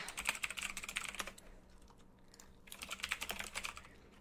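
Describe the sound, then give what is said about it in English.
Rapid clicking of computer keys in two bursts separated by a brief pause as someone types to look up a song, the clatter bright and steady with no voices present. “Eat my keyboard, bitch.”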